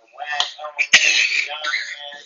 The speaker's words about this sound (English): You know, I'm gonna hold this motherfucking coughing right there. I know it's coronavirus out here. You don't even cough three times a month and shit.